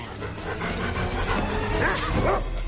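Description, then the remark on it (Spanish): A dog barks and yips excitedly in a quick series of loud calls as it runs toward a fleeing woman near a white two-storey wooden house, with panting-like noise and a steady rumbling background throughout. “Huye del perro que corre hacia ella.”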